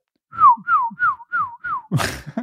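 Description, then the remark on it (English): Five evenly spaced, high whistled chirps, each sliding downward in pitch, mimic a bird's call: fake bird sounds heard on the golf course during the Masters golf tournament. A short, noisy burst follows right after. “Every single year during the Masters, people complain about the fake birds.”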